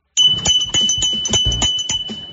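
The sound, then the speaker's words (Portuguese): A handmade bell, a piece of Minas Gerais craftwork, rings steadily, its bright sustained tone struck again and again in a quick, slightly uneven rhythm, with no talking. “Essa aqui é a campainha do artesanato mineiro”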